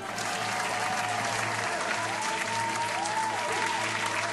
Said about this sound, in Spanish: Recibamos con un fuerte aplauso al actual monarca de la biblioteca